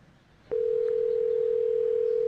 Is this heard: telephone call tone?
yes